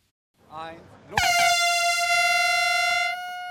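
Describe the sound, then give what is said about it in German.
A loud, sustained air horn blast sounds for about two seconds, a steady brassy tone, preceded by a brief murmur of a voice speaking, at a ceremony in Stade, Germany, marking the start of a new energy era. “Kein Startschuss, aber eine Art Tröte in ein neues Energiezeitalter.”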